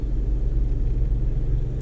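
A riding lawnmower drives past a car in the middle of a parking lot, its engine a loud, low, throbbing motor hum that holds fairly constant as it moves past, with no voices.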